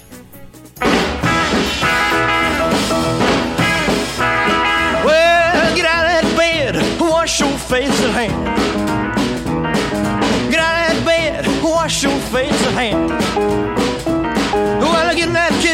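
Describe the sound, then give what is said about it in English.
A 1950s rock and roll record kicks in after a split second of quiet, with a singer over a driving band, playing loud and steady throughout. “qui allume la radio et qui entend ceci.”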